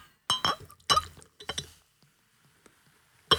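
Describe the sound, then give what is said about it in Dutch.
Champagne glasses clink together in a toast several times in quick, bright taps, with ringing high tones, followed by faint small knocks and one last sharp clink. “ASMR met champagne. Cheers. Cheers.”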